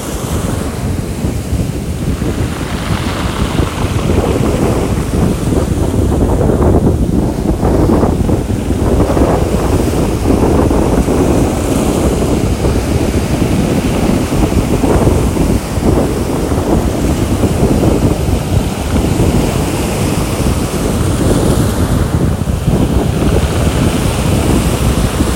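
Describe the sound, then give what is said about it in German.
Loud, continuous surf breaking on a stony shore on Samothraki in September, with stones rolling and clattering in the wash and wind buffeting the microphone throughout; no voices. “Vielleicht hört man jetzt, wie die Steine rumfliegen oder rollen.”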